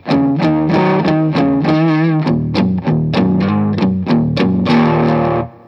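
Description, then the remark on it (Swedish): A distorted electric guitar plays a melodic riff through an amp with the tone control turned up and the presence turned down, bright and trebly, with sustained notes and quick picked attacks, loud with no talking. “Oj, ska ha gitarren på.”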